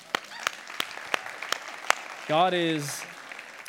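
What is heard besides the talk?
audience applause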